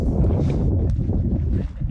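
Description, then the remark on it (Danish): Strong wind buffets the microphone outdoors among bushes on a day that is not cold, a steady low roar with rough gusty rumbling throughout, loud, with no voices. “Det blæser faktisk helt vildt.”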